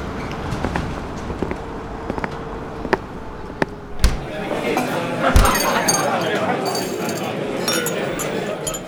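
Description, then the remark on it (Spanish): A busy café, the Café Colonial in Madrid, hums with indistinct chatter, sharp clinks of glasses and cups ringing out every second or so, a louder crash of crockery midway, then denser murmuring crowd noise. “Café Colonial de Madrid.”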